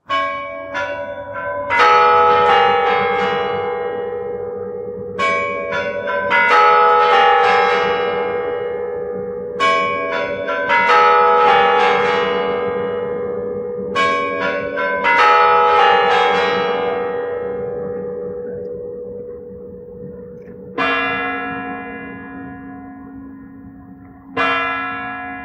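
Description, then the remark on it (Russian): Kremlin clock chimes play the characteristic slow melodic bell sequence before the clock strikes the hour, several groups of ringing tones with long resonant decay, followed by two separate heavier strikes near the end. No voices. “Как вы помните, перед боем курантов идет характерный перезвон. Вот послушайте.”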